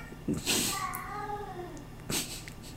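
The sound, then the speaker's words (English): A cat named Ninja Brian lets out a long, drawn-out meow with a wavering pitch, followed by a shorter cry near the end, moderately loud with no talking. “I wonder if you're going to hear that. Probably.”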